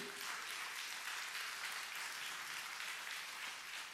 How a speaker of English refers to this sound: Don't, I don't want one person clapping. Come on. If you believe it, give him.